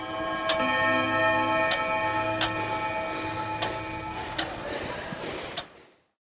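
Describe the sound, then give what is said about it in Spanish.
A clock ticks with about six sharp clicks at slightly uneven intervals, set against a steady humming drone that cuts off abruptly just before the end. “Pensar en la muerte de los relojes.”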